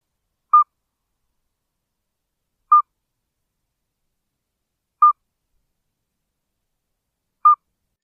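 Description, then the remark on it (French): Four short, clear whistled notes from a midwife toad, evenly spaced about two seconds apart, each a brief pure piping tone in otherwise silent surroundings. “Ça, c'est le crapaud accoucheur”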